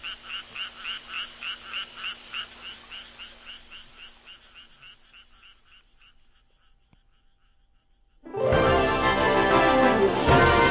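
tree frogs croaking

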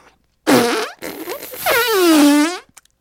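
loud fart sound effect

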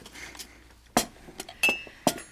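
cutlery clinking on dishes

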